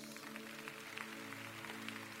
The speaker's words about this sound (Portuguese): Quem pode dar um aplauso ao Senhor Jesus?